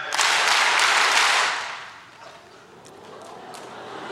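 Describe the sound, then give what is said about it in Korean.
An audience, told to clap five times, claps together in a short, loud burst of several quick, slightly ragged claps, then the sound drops away to a low murmur with a couple of faint stray claps. “박수 다섯 번 시작!”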